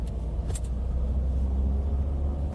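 Steady low engine rumble inside a moving car, a constant droning hum filling the cabin, with a couple of brief faint clicks near the start and no one speaking.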